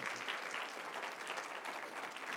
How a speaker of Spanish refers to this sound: Y dele un aplauso a Cristo en esta mañana, hermano.